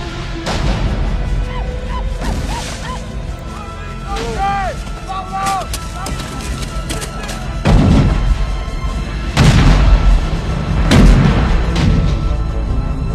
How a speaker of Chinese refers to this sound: 好，这个时候镜头一切，远离炮声，为什么呢？是因为主人公带着两姐妹，她们走水路， 用小舟慢慢的靠近正在交战的城堡。